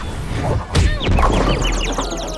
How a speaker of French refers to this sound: Ils s'en sont bien tirés, sauf quand ils se sont cognés le front en plongeant au milieu du but sur la même frappe.